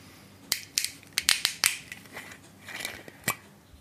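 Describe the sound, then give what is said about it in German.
A whiskey bottle without a cork being opened: a quick run of sharp, crackly clicks and snaps, like a screw cap's seal breaking, with short pauses between bursts and no talking. “Jetzt muss man natürlich wieder tragischerweise sagen, es ist auch hier kein Korken vorhanden. Ich mach den einfach mal auf,”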